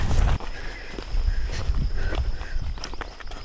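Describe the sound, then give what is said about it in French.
Steady footsteps crunch along a balcony-like path at an even walking pace, with a faint high whine and light outdoor ambience underneath. “On marche sur euh, comme un balcon à gauche.”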